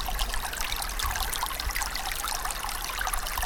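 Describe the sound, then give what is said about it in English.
Water trickles and leaks steadily, a continuous bright babble of tiny splashes and drips at an even, moderate loudness, with no voices present. “If data had a sound, it could be this the sound of important and sensitive information leaking out of your business.”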